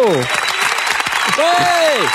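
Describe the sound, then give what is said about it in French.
Steady, dense applause fills the whole two seconds, a crackling wash of many hands clapping, while a voice speaks over it in rising and falling tones. “ça fait un tas d'applaudissements.”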